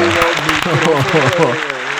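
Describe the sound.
Steady, dense applause from a small group welcoming a new microphone fills the whole two seconds, loud, with excited voices calling out over the clapping.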